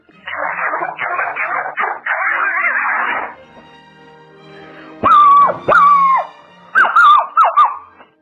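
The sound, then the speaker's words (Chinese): A person imitates a fierce, vicious dog for the Lizhi Zoo animal-imitation segment: a run of rough, raspy snarling bursts, then a pause and about five loud, sharp, high-pitched barks in quick succession. “我模仿的动物是恶狗。”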